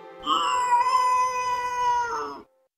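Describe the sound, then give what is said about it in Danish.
A single long, drawn-out cat meow, loud, held for about two seconds with a wailing, almost baby-like cry that rises slightly at the end. No one speaks. “Er det en kat? Ja, det ved vi jo i vores dage, at det er.”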